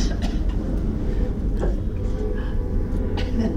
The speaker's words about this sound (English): So, so there's this petition, these, this asking of these imperatives do this, do this, make the train go away, soon, soon, please, may it pass.